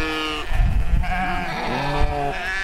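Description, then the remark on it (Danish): Several sheep and lambs bleat over one another, overlapping wavering cries at different pitches, some high and thin, others lower, forming a loud, continuous chorus with no talking; a flock of 41 ewes and 58 lambs, about 100 to 115 animals, coming down the hills. “Det er lam fra sidste år, der bliver til får, når de får det. Og så er der 58, 58 lam.”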